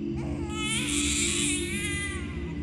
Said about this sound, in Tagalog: Isang gabi pa, Mahimbing na raw kaming natutulog noon nang bigla na lang nakarinig ng iyak ng sanggol ang lalay ko.